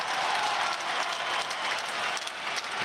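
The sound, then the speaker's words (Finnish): A home crowd applauds player Lukas Lessio steadily throughout, a dense wash of many hands clapping at once, sustained and fairly loud with no pause. “Kotiyleisö antaa Lessiolle aplodit.”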